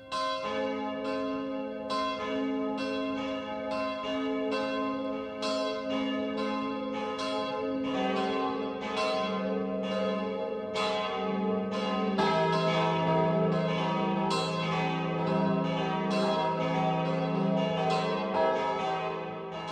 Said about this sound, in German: Es ist 12 Uhr. Das Mittagsläuten kommt heute von der ehemaligen Klosterkirche Marie Himmelfahrt in Reichenbach in der Oberpfalz.